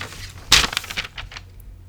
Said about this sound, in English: And the paper ruffle, rustles. I need to start typing everything, but I was just jotting down with my pencil.